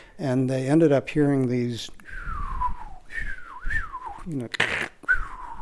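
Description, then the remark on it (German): Natural radio whistlers picked up on a field receiver: a few gliding whistle tones that sweep downward in pitch, following a humming, voice-like tone and broken by a short burst of static. “dass sie geklungen hätten wie Muscheln, die über einen hinwegfliegen.”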